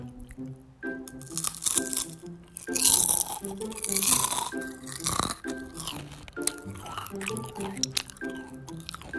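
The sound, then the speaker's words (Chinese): Crunchy chewing of a Yuanbenshan seaweed-and-nut sandwich snack, recorded as ASMR: loud, crackly bites and munching in irregular bursts, over a soft, steady tonal hum in the background. “我现在在吃海苔坚果夹心，哈，是原本山的，非常好吃。”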